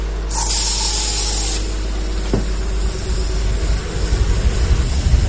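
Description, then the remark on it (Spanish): A single hissing burst of aerosol spray from an air freshener lasts just over a second, followed by a brief click, with a low steady hum running underneath throughout. “Apaga un cigarrillo. Y echa ambientador.”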